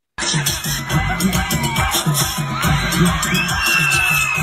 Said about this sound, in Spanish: ¡Un aplauso!